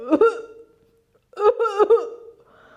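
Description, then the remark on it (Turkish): A human voice imitates a hippopotamus coughing after a package gets into its mouth: two clusters of short, throaty, voiced bursts separated by a brief pause, loud, ending with a low sustained sound. “Evet evet paket su aygırının ağzına girivermiş. Su aygırı başlamış öksürmeye.”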